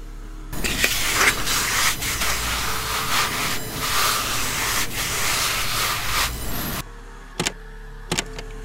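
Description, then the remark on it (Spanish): An unidentified steady, harsh scratching rasp, found in amplified audio during an investigation, runs for about six seconds with faint rhythmic strokes, then stops abruptly, followed by quiet and two brief sharp clicks. “El sonido es más parecido a un rasguño, sin embargo, no se tiene indicio de los susurros que el paciente ha referido.”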